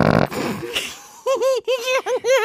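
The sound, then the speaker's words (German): A novelty fart generator toy plays fart sound effects: a buzzy low blast, a breathy sputter, then four quick squeaky, wobbling toots in a row, loud with no talking. “Hier sind ganz viele Furzgeräusche drauf.”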